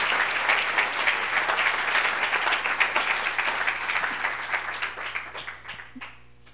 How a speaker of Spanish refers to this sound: A ver, démosle un aplauso al Señor. Gloria a Dios. Gloria a Dios.